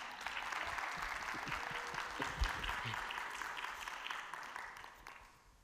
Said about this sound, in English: now, now you can clap. Right.